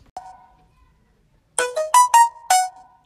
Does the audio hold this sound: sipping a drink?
no